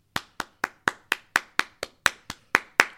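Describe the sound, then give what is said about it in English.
Steady hand clapping as a round of applause for AD scoring 50 points, about a dozen sharp, crisp claps in an even rhythm, getting slightly louder toward the end, with no voices. “Now, let me let me give him a round of applause.”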